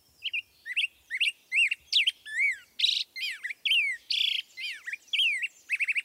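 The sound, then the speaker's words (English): A black-headed grosbeak sings a rich, rollicking song of quick whistled phrases rising and falling, delivered steadily with brief gaps between notes, no other sounds around it. “This rollicking song belongs to a black headed grosbeak.”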